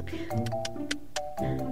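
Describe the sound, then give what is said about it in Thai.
A voice imitates a house gecko's chirping call: a quick series of sharp tongue clicks, about six in a row, clear over a soft tonal background. “ตั้งแต่นั้นมาขณะที่มันเปล่งเสียงพูดได้แต่ เท่านั้นเอง มันอับอายเพื่อนๆในป่ามากจึงอพยพมาอยู่ในบ้านคน แบบที่เราเห็นทุกวันกันนี่ยังไงล่ะคะ เวลาได้ยินเสียงจิ้งจกร้อง”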